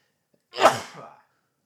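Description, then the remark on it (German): A single sharp sneeze bursts out, loud and sudden, then trails off over about half a second into quiet. “Gesundheit.”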